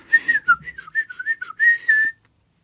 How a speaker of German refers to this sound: Ich flöte einfach so vor mich hin, weil das will ich gar nicht hören.